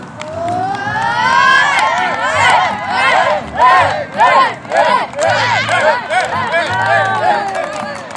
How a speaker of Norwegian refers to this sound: Skal du en Bølgen for foreldrene, eller? Ja. Ta Bølgen. Bølgen!